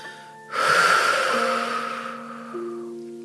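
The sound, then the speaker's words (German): A deep, audible breath taken in through the nose deep into the chest and flanks and let out through the mouth as a breathing exercise, a long airy rush of inhaling and exhaling that fades out, over a soft steady background tone. “Wir atmen ein. Ganz tief in den Brustkorb und in die Flanken ein und wir atmen aus.”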